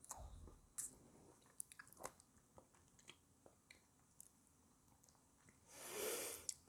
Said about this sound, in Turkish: Uzun zamandır üzüm yemedim. Bir tane de üzüm yiyelim. Bir tane de üzüm yedim. Bir tane daha yiyeyim oğlum.